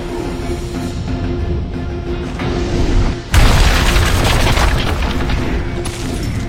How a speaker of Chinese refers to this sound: 他跃到佛顶，举起拳头，用尽全身力气直砸下去。佛顶裂出一条巨大的缝隙，佛头化为碎石纷纷坠落，碎石接连砸中佛身其他位置，整个佛像化为滚落的碎石。